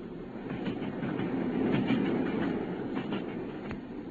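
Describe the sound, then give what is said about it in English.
A steam train bound for Kent from Charing Cross Station clatters steadily along the rails, a continuous low rumble broken by repeated sharp clacks of wheels over track joints, fairly loud with no voices. “It was not until we consumed some hot tea at the station and taken our places in the Kentish train that we were sufficiently thawed, he to speak, and I to listen.”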